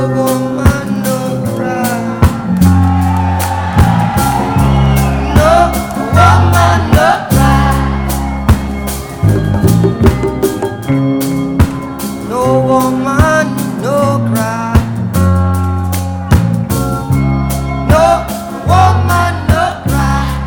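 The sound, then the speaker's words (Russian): A reggae song plays loud and full, with a steady bass line, offbeat guitar chops and organ, and a singing voice over a relaxed, even groove throughout. “Вот как звучал оригинал.”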